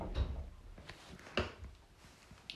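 door being closed

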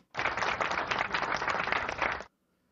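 applause

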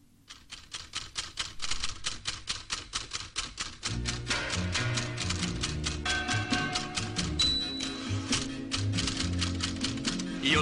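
typewriter typing

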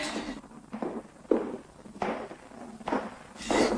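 footsteps walking down stairs

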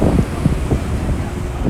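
sea waves

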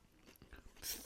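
chewing and crunching food

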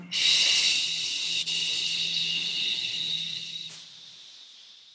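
inhaling through nose

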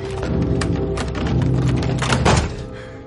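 door being opened

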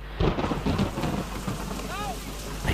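heavy rain with thunder

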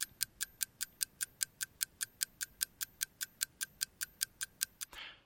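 ticking clock timer

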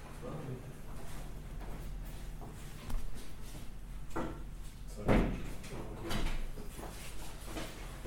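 knocking on a door

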